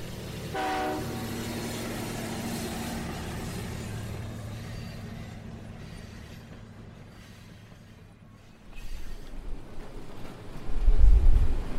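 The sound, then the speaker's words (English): A train rumbles steadily with a low, continuous drone and a brief horn-like tone near the start, then the rumble grows louder and heavier toward the end. No one speaks. “Okay, we're getting on the train now.”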